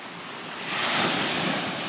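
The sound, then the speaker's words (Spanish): Ocean waves wash onto the shore, a broad hiss of surf that swells louder partway through and stays full, with no voices present. “Pero bueno, hoy no les pondré música para que puedan escuchar las olas.”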